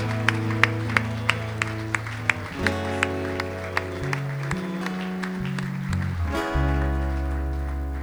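An audience applauds in praise of God, with steady rhythmic claps riding over sustained, shifting organ or keyboard chords that swell louder near the end.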